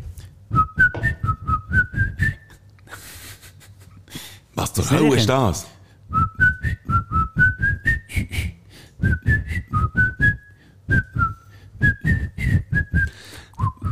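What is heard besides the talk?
whistled melody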